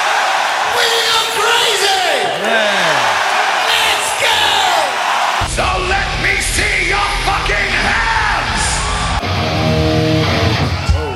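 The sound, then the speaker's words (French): A loud crowd in a concert hall cheers and yells continuously, many overlapping voices rising in whoops and shouts, with a heavy low rumble joining in about halfway through. “Allez, on va dans la salle de concert parce que ça fait longtemps qu'on a pas.”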